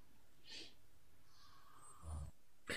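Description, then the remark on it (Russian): An electrician snores in his sleep, quiet breathy inhales broken by a deeper rumbling snort near the end and a short sharp breath right after, with no one talking. “Так храпит аппетитно.”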